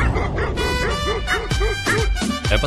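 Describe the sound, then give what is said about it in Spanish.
A dog barks in a quick, steady series of about half a dozen loud yips, each bark evenly spaced with short gaps between them, with no talking. “Alguien me está echando los perros.”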